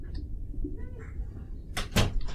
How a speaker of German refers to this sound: Warte, mach mal die Tür zu